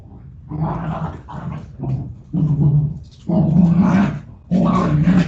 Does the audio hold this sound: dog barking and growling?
yes